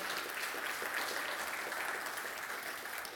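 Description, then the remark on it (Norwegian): A crowd claps steadily, a dense, even wash of many hands applauding at once, sustained throughout with no voices standing out. “Og eh, Ja, det er lov å klappe for det.”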